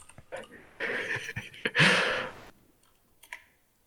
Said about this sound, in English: I'm going to edit on the fly, so enjoy my clickety clacky keys.